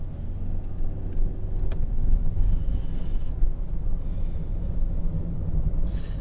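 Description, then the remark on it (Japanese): A steady, low rumble of road traffic fills the scene, with cars stopped or idling on the road and gusts of wind buffeting the microphone. No one speaks. “うん、なんか事故ですかね車が止まってますね”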